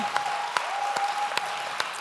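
A crowd in Sweden claps unto the Lord while welcoming Dr. Pat Francis to minister, a steady dense wash of applause with a few sharper, louder claps standing out at a regular beat about every 0.4 seconds and a faint sustained tone running underneath.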